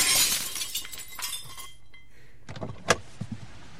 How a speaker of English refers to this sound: they broke my window. I'm going to have to call a glazier.